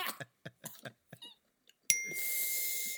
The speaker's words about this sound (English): Oh man, there's the bell again. I didn't even say Cleveland oh, Steamer this time.